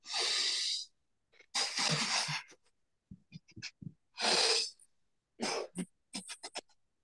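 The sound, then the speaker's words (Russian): Loud breathing through the nose in a yoga breathing exercise: long noisy deep inhales alternate with quick runs of many short, forceful huffing exhalations in a rapid rhythm, with no talking. “Делаем глубокий вдох через нос и много маленьких выдохов тоже через нос.”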